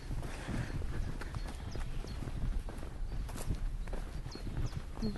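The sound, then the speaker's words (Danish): Icelandic horses' hooves clip-clop in a steady walking rhythm not far away, the repeated knocks continuing throughout over a low outdoor rumble, with faint higher chirps in the background. “Det er islandske heste.”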